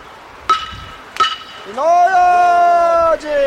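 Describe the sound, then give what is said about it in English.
Two sharp, bright wooden clacks of clapper blocks struck together by a fire watch team walking through a neighborhood on a chilly evening, spaced apart, followed by a long sustained voice calling out their message in a steady, drawn-out tone. “The teams wend their way through the neighborhood, clapping the wooden blocks and calling out their message.”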